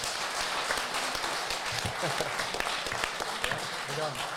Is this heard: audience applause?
yes